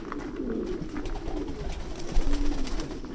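Several pigeons coo in low, throaty rolls that overlap continuously, with soft rustling and faint clicks, in a pigeon loft with individual nest boxes on a farm breeding pigeons for sale; no voices present.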